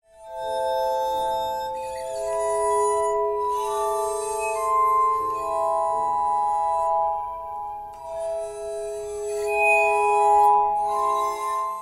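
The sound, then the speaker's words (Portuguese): A glass harmonica plays sustained, shimmering tones that swell and overlap into slow chords, ringing and bell-like, continuous for the whole stretch with no voices. “Então, eu vou colocar aqui um trechinho só de como é essa harmônica de vidro tocando, para vocês terem uma ideia.”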